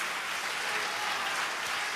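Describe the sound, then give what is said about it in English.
An audience claps their hands in praise of God in a dense, continuous wash of overlapping claps, steady and fairly loud throughout, with no voices standing out above it. “If you believe that, I want you to clap your hands and praise Him.”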